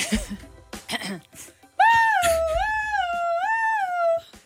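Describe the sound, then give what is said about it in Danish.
A person imitates an ambulance siren with a loud, wavering voice, the pitch rising and falling in slow cycles for a couple of seconds after brief speech. “Du ved godt, hvordan en ambulance lyder.”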